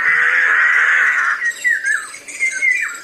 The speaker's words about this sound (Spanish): Después, el grajo chilló por tercera vez